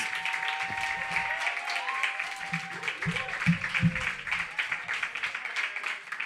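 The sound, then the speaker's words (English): An audience at a Yawp open mic poetry night applauds the 12 Poem of the Month winners steadily for several seconds, a dense, even wash of many hands clapping, with a few indistinct voices briefly audible beneath it. “So, yes, give them all a round of applause.”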